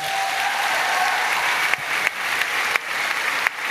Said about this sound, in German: auch schnell Applaus